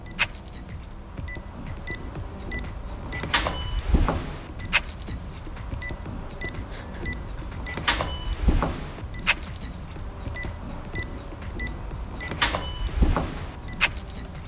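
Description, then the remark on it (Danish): A workplace door entry keypad repeats its cycle: quick bright beeps as a short code is tapped in, followed by a mechanical clunk and rattle of the lock releasing, about every four to five seconds. “One hour of vores døråbningssystem, hvor man skal taste en lille kode.”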